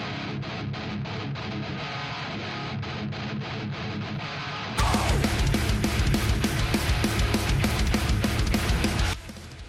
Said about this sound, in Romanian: Este o uh, formație de metalcore care poate să sune așa.